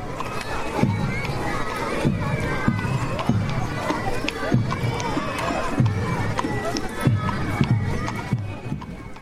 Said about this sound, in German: Und der Martin, der ist auch mitgeritten. Vielleicht hört ihr noch mal ganz gut hin und dann hört ihr, wie die Hufe von dem Martins Pferd klappern.